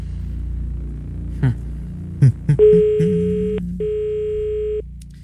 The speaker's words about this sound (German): Und ich würde sagen, wir lassen einfach jetzt mal klingeln. Ich habe wahllos rausgesucht und vielleicht geht die Person, die es geworden ist, heran.